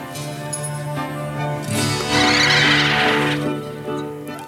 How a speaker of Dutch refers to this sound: Eh, kijk, dit zijn dus die meeuwen, die, die herkennen we allemaal. Hè? En die moesten dus de las eigenlijk verbloemen hmm. ja. die Jeff Emmerich heeft gemaakt.